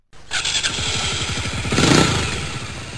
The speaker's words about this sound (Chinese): 想让在家里边的妻子呢高兴，他就骑摩托车回家了。